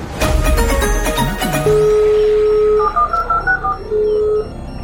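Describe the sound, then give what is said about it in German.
A dial-up modem handshake played as the intro of the radio show Chaos Radio on Fritz: rapid dialing tones, then a long steady whistle, followed by warbling, chirping bursts and another sustained tone, loud and without any talking. “Nochmal mit dem lustigen Modemgeräusch.”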